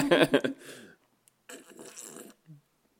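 Someone noisily slurps and gulps beer, drinking as loudly as possible, in two loud, airy bursts separated by a short pause, followed by a small swallow at the end.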